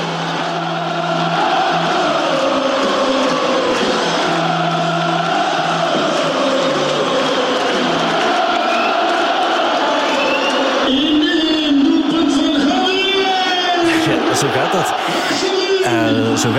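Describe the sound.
A huge football stadium crowd sings a song together after a Club Brugge goal, loud and sustained, the massed voices carrying a steady melody with whoops and cheers rising near the end.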